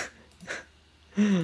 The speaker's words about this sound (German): Da muss ich kurz niesen.